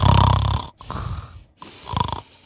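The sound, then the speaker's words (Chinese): Loud, rumbling snoring from a father who has fallen asleep on a sofa in a living room, with low, rattling inhalations, about three snores in a row separated by short silent gaps, no talking. “在沙发上玩手机，玩一会儿之后呢，就听见这个客厅里边传来了响亮的呼噜声。”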